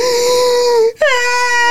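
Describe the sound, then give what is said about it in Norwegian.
A voice imitates exaggerated, Kim Kardashian-style sobbing, a drawn-out wailing cry with a brief gasp in the middle before the tremulous wail resumes, loud and alone without other talk. “Og så husker jeg satt i sofaen og bare sånn derre for vanligvis så klarer du jo å bestemme deg litt for at nå skal jeg slutte å grine, men det var sånn”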